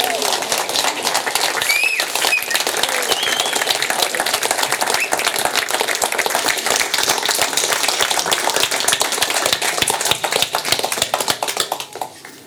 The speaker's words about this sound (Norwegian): Og han ønsker seg en enda større applaus enn dere ga i sted. Ta godt imot Finn Skårderup!